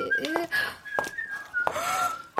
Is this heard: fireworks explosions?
no